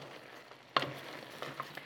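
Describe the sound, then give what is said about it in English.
Shrimp for a Greek mezze starter sizzle quietly in a frying pan, a soft steady hiss with a sudden sharp burst of crackling partway through and a few small pops after. “The shrimps are almost cooked.”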